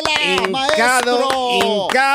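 A handful of sharp, irregular hand claps, about seven, ring out over loud overlapping voices that talk and exclaim throughout.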